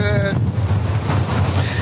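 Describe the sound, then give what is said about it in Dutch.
Strong storm wind at Uitmuiden roars and buffets the microphone in a steady, heavy rumble, with a brief tonal whine at the start and a constant gusty hiss throughout. “Nou, zo te horen is de wind hier inderdaad behoorlijk”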